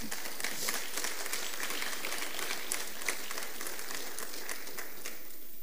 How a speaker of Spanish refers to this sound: denle un aplauso al Señor.